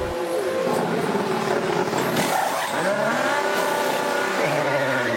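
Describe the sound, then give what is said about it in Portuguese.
A Formula 1 pit stop by Red Bull lasting 1.82 seconds, the fastest recorded in Formula 1: a racing engine roars loud throughout, its pitch swelling and dipping, with dense mechanical clatter and whine packed around it and no pause in the noise. “O áudio que você vai ouvir agora é justamente o processo desses 1.82 segundos de duração.”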